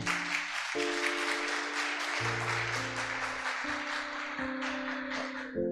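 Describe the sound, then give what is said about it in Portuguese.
A church audience applauds the Lord in a steady, dense wash of clapping that lasts throughout, while sustained keyboard chords shift underneath. No one speaks. “Dê um forte aplauso ao Senhor.”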